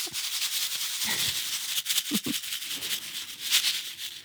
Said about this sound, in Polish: Tak brzmią nasiona, które dostaną wraz z podwójnym świątecznym wydaniem tygodnika powszechnego nasi czytelnicy. Nasiona Łąki. Nasiona łąki, konkol polny, len zwyczajny, mak polny, miłek letni, rumianek pospolity, wyka kosmata, koper ogrodowy,